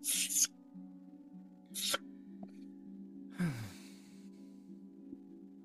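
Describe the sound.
A voice mimics a whetstone scraping along a short sword: two quick, hissing strokes, then a longer, rougher one that drops in pitch, all over a steady low background hum.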